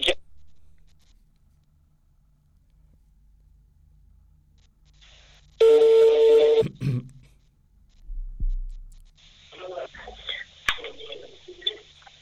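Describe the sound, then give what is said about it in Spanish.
A phone line connecting as a caller is linked into the programme: after near silence, one loud, steady electronic tone lasts about a second, followed by crackly, muffled line noise with faint, indistinct sounds. “Déjenme intentar enlazarla porque me ha estado marcando.”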